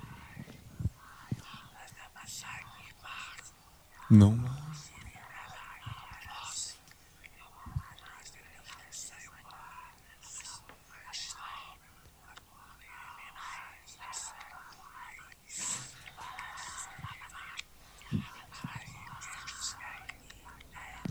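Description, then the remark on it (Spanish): Faint, breathy whispering voices, about four of them, murmur throughout a recording, overlapping and hard to make out, with soft hissy bursts and a brief louder thump near the start. “Pasaron varios minutos y se vuelven a escuchar esas voces.”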